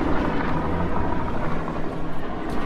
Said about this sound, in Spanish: yo iba caminando por la calle. Y pasó un helicóptero. Y pensé, ¿hace cuánto que no oigo un helicóptero en un podcast?